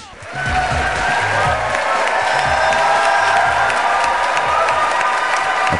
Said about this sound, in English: applause for, at the time, Justice elect Janet Protasiewicz for her investiture ceremony.